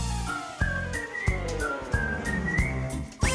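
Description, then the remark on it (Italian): A person whistles a bright, wandering melody, clear, over a steady musical accompaniment with regular percussive beats. “Se dimentichi le pinze, fischiettando ti dirò.”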